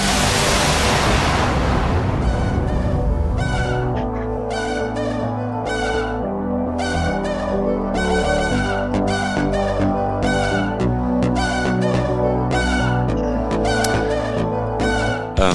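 A radio show's opening theme music: a loud rushing whoosh fades into bright synth chords pulsing in a steady, repeating rhythm over a full, sustained backing, with no voices.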